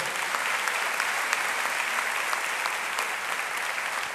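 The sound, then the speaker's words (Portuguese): Sustained applause from a crowd giving an applause for the name of the Lord, a dense, even wash of many hands clapping at steady loudness for several seconds, with no voices standing out. “Você pode dar um aplauso para o nome do Senhor.”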